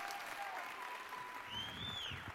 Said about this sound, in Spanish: Así que vos deixo con os do Val Dolérez. Aplausos.